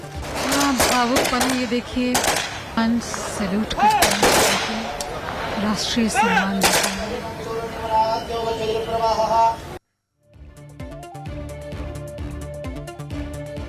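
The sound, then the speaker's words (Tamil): Ceremonial gun salute volleys fired by security forces at the state-honours cremation of singer Lata Mangeshkar ring out as several loud, sharp cracks spaced a second or two apart, over a busy outdoor crowd with voices and commands, before an abrupt cut to quieter background. “பாடகி லதா மங்கேஷ்கர் உடல் முழு அரசு மரியாதையுடன் தகனம் துப்பாக்கி குண்டுகள் முழங்க பாதுகாப்பு படையினர் மரியாதை”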